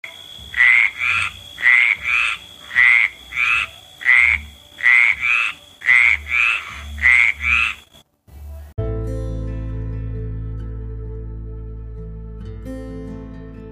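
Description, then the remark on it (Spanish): A frog croaks in a steady, rhythmic series of about ten loud calls, then the croaking stops and sustained tonal background music takes over. “Este grupo de animales que han habitado el planeta desde hace más de 300 millones de años se ven amenazados por pérdida de hábitat, contaminantes, aumento en la radiación UV, introducción de especies invasoras, cambio climático”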